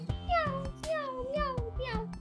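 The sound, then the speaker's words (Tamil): Several high, thin meows from two pet kittens follow one another in quick succession outside a house, each a short rising-and-falling mew, moderately loud over a faint low background. “வெளியில அவங்க வளர்க்குற ரெண்டு பூனைக்குட்டியும்”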